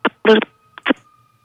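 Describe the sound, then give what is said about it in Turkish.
Garbled phone-line interference: a few choppy, distorted bursts of broken-up sound over a thin steady electronic tone, like a call breaking up from poor reception. “Telefonunuzda bir problem var. Bir böyle daha net çekebilecek bir yere geçebilir misiniz acaba?”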